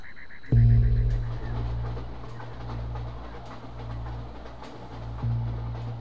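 A 12-car Amtrak passenger train with 258 passengers rolls through the Arizona desert at night in October 1995, a loud, steady low rumble that surges in after a brief moment, broken by occasional faint clacks of the wheels, with no voices.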